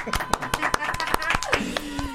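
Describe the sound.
An audience claps in a quick, uneven burst of sharp hand claps lasting a couple of seconds, with voices cheering and talking underneath, welcoming a singer presented as a guest on a radio programme.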